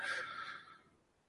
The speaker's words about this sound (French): Je suis désolé, le chat ronfle vraiment très fort.